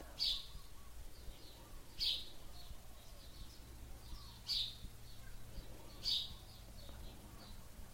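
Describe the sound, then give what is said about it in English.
A bird sings repeated short, high chirping phrases, four bursts spaced about two seconds apart, moderately loud against a quiet low background hum. “And for me, just then, the sound of the bird became predominant.”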